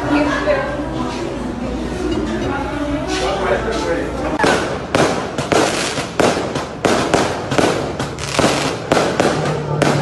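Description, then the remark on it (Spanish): A dense volley of sharp, loud detonation-like cracks erupts after a few seconds of murmur among diners in a Starbucks café on Felipe Sevilla del Río avenue in Colima, cracking repeatedly and irregularly for several seconds while voices react. “En Starbucks estaban comensales ahí disfrutando cuando escucharon lo que creían ellos detonaciones y así lo vivieron.”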